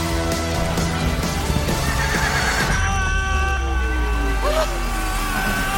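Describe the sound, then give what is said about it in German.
A horse whinnies loudly and repeatedly, its shrill, wavering neighs rising and falling, while hooves clip-clop unevenly beneath. The whole scene is busy, with a constant rumbling background. “Wo ist das scheiß Pferd hin?”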